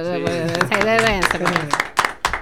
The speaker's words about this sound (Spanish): Ok, dale un aplauso.